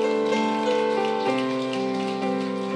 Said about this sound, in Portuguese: Pode aplaudir Jesus aí.